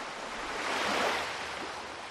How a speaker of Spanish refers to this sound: Pero estas olas empiezan a sonar distintas cuando piensas que estás delante de un auténtico cementerio. De unas aguas que se han llevado por delante la vida de 28.000 personas en los últimos 10 años.